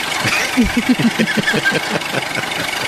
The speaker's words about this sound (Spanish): Sí, parece molino de eso que donde va uno a moler la masa y todo el maíz. Y todavía le sirve el motor de arranque.